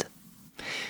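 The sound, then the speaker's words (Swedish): A soft, breathy hiss from a respirator that helps a person breathe swells up partway through and holds steady, a faint airy rush sitting low in the background with no one speaking. “Det är lite ett pysljud.”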